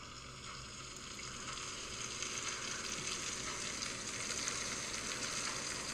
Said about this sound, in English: Oh, that is pure sizzle. You heard that loud and clear. Oh my god, I wish I could have it. That was pure sizzle out of the pan, and if you thought the sound was good, the video looks awesome.